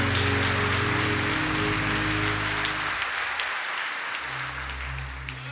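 A church audience claps and cheers loudly and steadily for several seconds, a dense wash of applause over sustained low keyboard chords that briefly drop out and then return.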